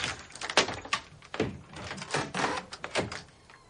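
A door is eased partly open, producing a quick series of clicks, rattles and soft thumps from the latch and hinges, moderately loud and irregular, with no voices.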